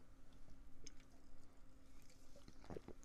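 Someone takes a quiet sip of water: faint wet slurping and a couple of soft mouth clicks and a swallow near the end, with no talking.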